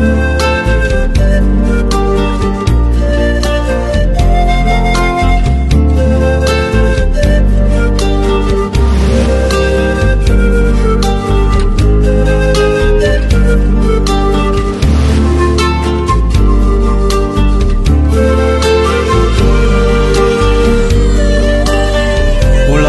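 A romantic song plays loud and steady throughout, with a full band, a rhythmic bass line pulsing underneath and bright sustained melody on top, and no one speaking over it.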